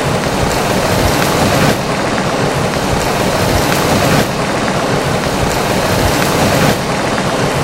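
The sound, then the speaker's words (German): A group of people imitates rain, producing a steady, dense pattering and rushing noise that swells and dips slightly in waves, loud, with no talking. “Vielen Dank, ihr habt das sehr gut gemacht sehr authentischer Regen, Also ihr seid echt schauspielerisch bedacht.”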